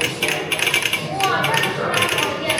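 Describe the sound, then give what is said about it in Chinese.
A telegraph key on a museum exhibit being demonstrated, giving off a steady run of sharp metallic clicks and rattles in uneven bursts, moderately loud and mechanical, with no clear talking over it. “就是电报啊！电报在这里还有一个展品，我们可以演示一下。”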